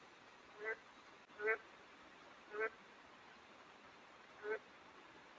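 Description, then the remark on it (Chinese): Four short, thin croaks from a small frog in a rain-soaked forest at a two-and-a-half-mu bird-watching plot, spaced unevenly over a few seconds, each a brief nasal chirp that stands out over a steady background hiss. “就感觉这是个小青蛙的叫声，很细很细。”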